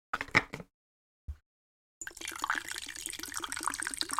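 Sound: tea pouring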